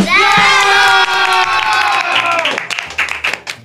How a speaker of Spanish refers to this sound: A todos ellos, angelitos misioneros, un gran aplauso